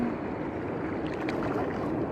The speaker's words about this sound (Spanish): Y vas a ir sintiendo como las olas del mar van como calmando tu mente, limpiando, purificando la mente